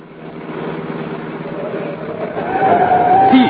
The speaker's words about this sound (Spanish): Ahí viene un auto con placas de alquiler. Tiene las señas del que nos reportaron mis agentes.